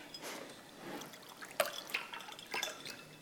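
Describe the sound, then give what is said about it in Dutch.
Water is poured into a glass, a short trickling splash with a few bright clinks and drips, heard alone without any talking. “Ook een glaasje water? Ja, graag. Even inschenken.”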